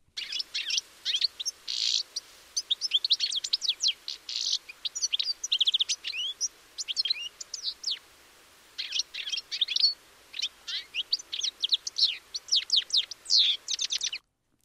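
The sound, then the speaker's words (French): Several European goldfinches twitter together in a busy flock while pecking dandelion seeds in spring, their bright, tinkling chirps and rapid trills overlapping almost continuously, fairly loud, with only a brief pause midway. “Ces chardonnerets élégants, à gros bec pointu, tête rouge et plumage chatoyant, qui gazouillent souvent collectivement joyeusement.”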